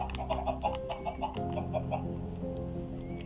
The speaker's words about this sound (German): Aber Huhn habe ich noch nicht gefunden. Ach hier, Huhn.